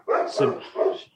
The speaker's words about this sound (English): excuse the dog, please.